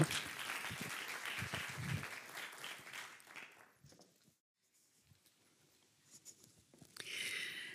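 Audience applause fills the first few seconds with dense, steady clapping, then fades out into near silence, followed by faint rustling and another short burst of noise at the end.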